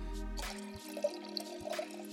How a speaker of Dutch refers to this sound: Ik trek een fles open. Ehm, het is witte wijn.